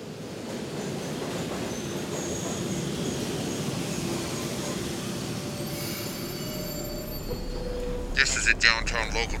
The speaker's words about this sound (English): Transit is just the movement of an object from one place to another. I mean, this subway picked us up at 42nd Street, and we'll be getting off at 14th.